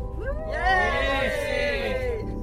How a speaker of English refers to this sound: And can we just have a big cheer? Who would like to go sailing again?